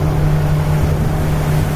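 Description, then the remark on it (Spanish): The aircraft carrier Dwight Eisenhower, about 300 metres long, under way in the Yellow Sea: a steady, loud low engine drone with a constant hum and a rushing wash of water noise, unbroken throughout, with no voices. “Era una pequeña ciudad flotante en pleno mar amarillo.”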